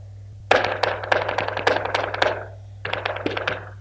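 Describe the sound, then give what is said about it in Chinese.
A rapid burst of sharp stamps and heel strikes from nailed flamenco dance shoes, dense and driving for about two seconds, then a pause before a shorter flurry of percussive flamenco footwork over a low steady hum. “你看我今天穿了舞鞋过来的，我们的舞鞋上面是钉子，我们跟踢踏舞不太一样的是，我们想要出来的声音是往地下走的。”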